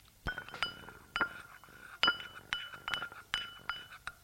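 A man at a family table stirs milk with a spoon in the bowl just served to him. The spoon clinks against the sides in around ten bright, ringing taps at uneven intervals, with a soft swirl of liquid between them.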